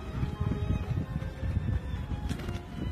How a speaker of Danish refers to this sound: Øh, man kan kun høre larm, larm fra vinden og